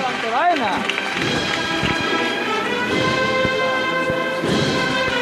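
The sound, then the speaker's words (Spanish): Steady, dense applause from a large crowd filling a plaza, with shouting and cheering voices rising above the clapping. “Y se levanta el aplauso de toda la plaza.”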